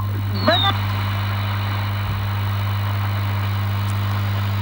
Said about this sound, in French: Vous venez d'entendre au quatrième top la fin de France Inter en grandes ondes. À minuit pile, le 31 décembre 2016, l'émetteur d'Alouis, région centre, a cessé d'émettre sur le 162 MHz.